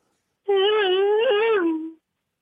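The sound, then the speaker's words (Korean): A single sustained vocal tone, held steady for about a second and a half with a slight wavering rise and fall, a caller on the phone imitating two cars racing by in a chase. “자동차 두 대 빨리 가는 거죠.”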